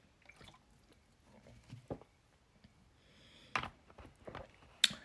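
Someone takes a drink of water: soft sips, wet swallows and small mouth sounds, quiet overall, ending with a couple of sharper clicks like a cup being set down.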